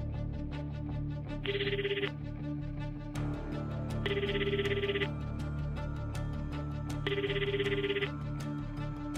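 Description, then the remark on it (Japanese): A telephone rings repeatedly on the line as the master of Vostok places a call, three evenly spaced ringing bursts about a second each with pauses between, heard over faint clicking background noise and no voices. “ボストークのマスターは電話をかけた”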